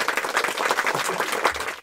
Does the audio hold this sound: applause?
yes